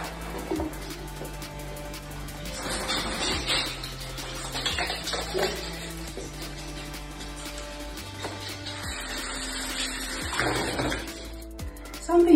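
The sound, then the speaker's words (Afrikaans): Something being washed and swished in soapy water, with two bursts of splashing and sloshing, set against steady background music. “So heel eerstens was dit my ander in seepwater.”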